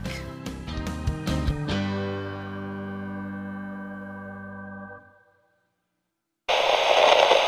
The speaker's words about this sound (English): Channel KRT, cut to static.